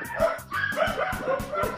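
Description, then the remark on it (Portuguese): Dogs barking outdoors as an old woman walks a dog past, in a quick, uneven run of sharp overlapping barks, about five in two seconds, fairly loud, with no talking. “É uma velha passando cachorro.”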